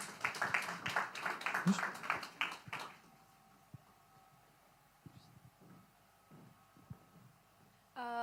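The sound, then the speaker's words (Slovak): A group claps loudly for about three seconds, a dense burst of many hands, then the applause stops, leaving a quiet hum with a few scattered knocks. “Zatleskať.”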